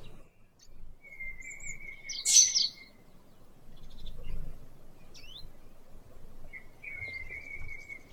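Oriental dollarbird calls: a harsh, raspy burst stands out among thinner, higher tones and scattered chirps, over a soft low rumble, with no one speaking.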